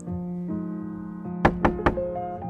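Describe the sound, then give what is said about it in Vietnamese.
Three quick, firm knocks on a bathroom door by a spouse calling the bather out, in a rapid loud burst over a steady, low musical drone that continues throughout. “Mình ơi, mở cửa ra đi, tắm gì mà đến cả hai tiếng vậy?”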